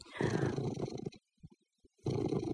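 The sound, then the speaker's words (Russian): A twelve-year-old male cat purrs loudly in the morning, a rough, rumbling pulse in two long stretches separated by a brief quiet pause with faint soft rustles. “Собственно, утреннее общение происходит прямо сейчас, потому что, может быть, тут слышно, как он урчит.”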